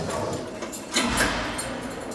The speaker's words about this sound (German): So, die nächste Tür geht auf. Ja. Es wird wieder geschlossen.